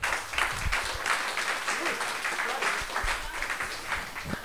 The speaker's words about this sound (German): Herzlich willkommen offiziell und dieser Applaus ist für euch. Schön, dass ihr da seid als Basketballfamilie in Würzburg.